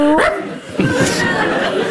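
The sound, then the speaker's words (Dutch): A dog barks a couple of times in short, sharp bursts at a dog park, with some background noise and what sounds like faint human voices around it. “De rechtvaardigheid live van op de hondenweide.”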